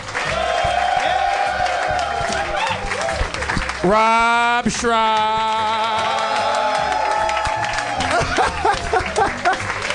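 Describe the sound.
A crowd applauds and cheers steadily throughout, a dense, loud wash of clapping, while a voice calls out an announcement over the noise midway.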